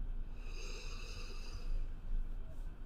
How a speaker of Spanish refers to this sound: inhalas, exhalas, inhalas, es una respiración muy corta, exhalas